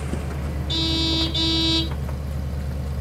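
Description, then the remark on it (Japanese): Two steady car horn honks, the first slightly longer than the second with a brief gap between, sounding over a low idling engine rumble; a man has stopped his car in the snow-covered parking lot of an octagonal drive-in restaurant in San Bernardino, California, in December 1948. “男は車を止めクラクションを鳴らした”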